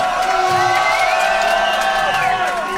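A concert crowd cheers loudly and continuously, a dense roar layered with high whoops and scattered shouts that rise and fall without a break.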